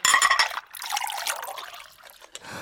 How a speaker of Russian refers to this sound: Фома, я тебе чайку еще налью